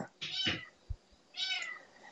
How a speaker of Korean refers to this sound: 애기냥이 혼자서 어제부터 울고 있는데 이거 뭐 어떻게 하기도 그렇고 참 애매하네